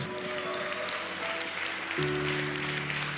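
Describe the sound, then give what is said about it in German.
An audience claps steadily throughout, a dense, sustained applause for everyone who responded to the prayer, while soft keyboard tones play underneath and a deeper chord swells in partway through. “Lass uns allen, die sich gemeldet haben, einen Applaus geben.”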